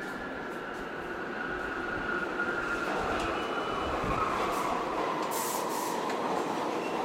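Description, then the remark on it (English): A 6 subway train rumbles steadily and loudly through an underground tunnel past the closed Old City Hall Station without stopping, on its turnaround loop after the last stop, its wheels giving off a thin metallic squeal above the constant roar for the whole stretch. “Today, the 6 train no longer stops at Old City Hall Station, but it does go through it.”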